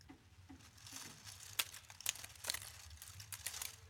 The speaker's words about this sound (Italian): Niente, nonno, sono le foglie che cadono. Sì, sono le foglie che cadono sulla terrazza.